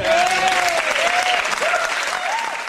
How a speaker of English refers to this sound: All right, that was Glenn Max. Everyone, give us a round of applause for Glenn.